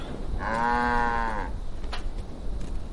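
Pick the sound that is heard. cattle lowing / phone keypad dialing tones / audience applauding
cattle lowing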